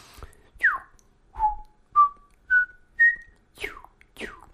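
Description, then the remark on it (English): A person whistles an imitation of a New Zealand bellbird: seven clear notes, opening and closing with quick downward swoops, with bell-like steady tones in between, stepping gradually higher. “Here's a New Zealand bellbird. I'll try it.”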